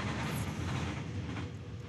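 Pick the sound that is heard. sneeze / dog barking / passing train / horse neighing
passing train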